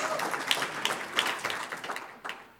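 A crowd applauds steadily, dense overlapping claps forming a continuous wash of sound with a few sharper individual claps standing out, no voices rising above it.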